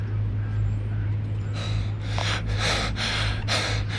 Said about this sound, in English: bent over, breathing hard.